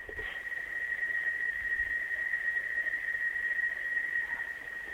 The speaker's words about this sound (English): There's there's the sound of cicadas outside.